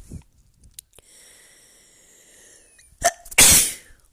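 A single loud sneeze bursts out near the end, preceded by a quick sharp inhale and a stretch of faint breathy build-up, with no talking. The sneezer is allergic to the heavy dust and a cat where they are.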